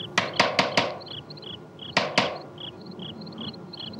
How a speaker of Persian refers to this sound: در زدن نه من که نشنیدم انگار در میزنن برو ببین کیه کسی نیست بابا صدای باده باد کجا بود